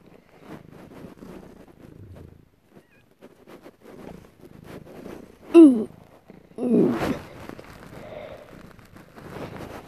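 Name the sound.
cat purring softly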